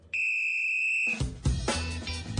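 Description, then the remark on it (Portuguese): A referee's whistle gives one steady, shrill blast lasting about a second, cut off abruptly by a loud, dense rush of full-bodied sound. “Esse apito aí indica que a Copa América está chegando e a seleção brasileira já se prepara para a competição que acontece em junho.”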